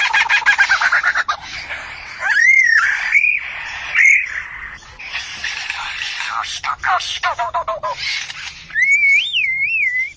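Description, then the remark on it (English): A greater coucal (sembagam), a member of the cuckoo family, sings with loud, repeated bursts of harsh chattering and rising, warbling whistles that swoop up and down across several seconds, with a few short pauses between phrases. “The bird is a sembagam, or the greater coucal, a member of the cuckoo family.”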